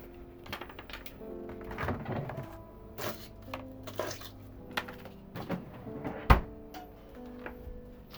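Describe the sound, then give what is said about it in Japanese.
A refrigerator door opens amid scattered clicks, knocks and rattles of items being handled as someone fetches a frozen mousse ice dessert, while the fridge's low, steady motor hum starts up on opening and drones underneath. No one speaks. “なんか冷蔵庫開けたらブンって言い始めちゃったごめんなさいうるさいかもしれん”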